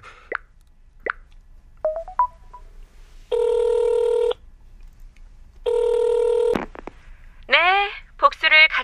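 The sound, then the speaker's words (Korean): A few quick beeping dial tones tap out the number of a revenge discussion group, then two long buzzing telephone ring tones sound, followed by chirpy electronic warbling tones at the end. “전화해볼까?”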